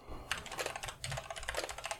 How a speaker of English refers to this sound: Edit out my keyboard clicks.